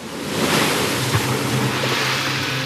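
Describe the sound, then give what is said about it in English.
Sea waves wash and churn in a steady, dense roar, with no clear breaks between swells, and a low rumble running underneath. No one speaks. “tossed by the waves, for the wind was contrary.”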